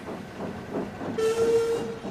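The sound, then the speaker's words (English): The steam engine Duncan rumbles into the steamworks along the rails, its low chugging steady, then a bright sustained whistle sounds for about half a second near the end. “It was at this very moment that Duncan himself jolted into the steamworks.”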